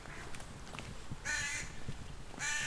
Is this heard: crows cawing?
yes